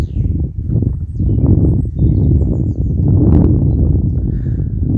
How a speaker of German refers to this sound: Ich höre auch meine Schritte auf dem weichen, erdigen Waldboden.